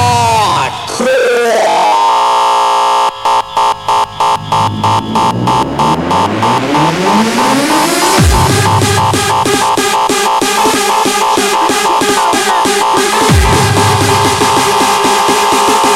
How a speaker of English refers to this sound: Make some noise for hardcore ravers. Come on, where are you? Where are you?